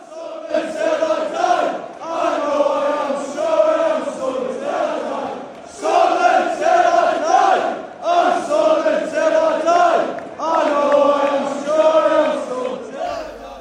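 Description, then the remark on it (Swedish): A large stadium crowd of Sunderland football supporters chants in unison to salute their players after a defeat, loud and sustained, the song rising and falling in repeated phrases with a rhythmic swell every few seconds. “Ja, bara så här, för att in, insupa lite stämning så kan vi lyssna på hur, hur det lät när Sunderland-supportrarna faktiskt eh, hyllade sina spelare efter den här förlusten som det ändå blev.”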